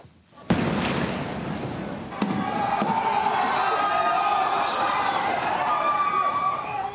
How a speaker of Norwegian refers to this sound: Det er full panikk på en T-banestasjon her i Rio. Giftig gass dekker området etter at en terrorgruppe har brukt kjemiske våpen. Mange av passasjerene ligger og vrir seg i smerte på perrongen og inne i vognene. Men heldigvis, det er bare en øvelse